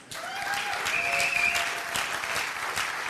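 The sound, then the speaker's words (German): A crowd claps steadily for a man working the projector, a dense wash of many hands that stays loud throughout, with no voices standing out above it. “Gebt ihm mal einen großen Applaus.”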